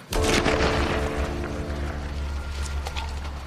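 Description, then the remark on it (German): Several gunshots crack out at irregular intervals, each followed by a booming echo that rolls into a sustained low rumble. They are practice shots fired by a Kurdish feminist police unit in northeastern Syria. “Die Schüsse im Hintergrund sind Übungsschüsse von ihrer Einheit.”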